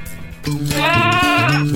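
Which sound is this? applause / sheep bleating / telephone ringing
sheep bleating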